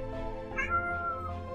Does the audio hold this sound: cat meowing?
yes